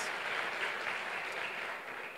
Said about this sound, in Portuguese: Podemos aplaudir a Jesus na vida deles? Tem lá atrás, tem aqui. Glória a Deus. Parabéns.